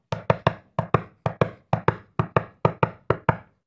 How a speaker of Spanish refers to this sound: Caminó hasta donde vivía el ciervo y golpeó la puerta.